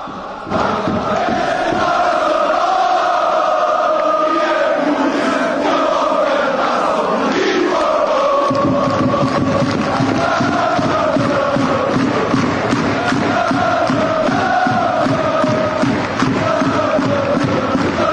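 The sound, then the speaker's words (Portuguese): A large crowd of FC Porto supporters chants the Super Dragões song "Nosso Amor" in unison, sung near the end of games, the voices swelling in a steady rhythmic melody; partway through a deeper surge of voices and beating joins, making the chant louder and fuller. “que o Super Dragões lançaram essa música lá também repercutiu muito foi cantada por muito tempo e como eu disse recentemente tem cantado de vez em quando na, na parte final dos jogos é uma música marcante da, da, da história da torcida”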